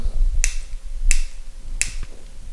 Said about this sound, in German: Hier mein Feuerzeug ist, glaube ich, leer.